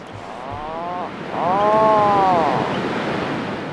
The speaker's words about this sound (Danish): Det er en lunde, eller et søpapgøj,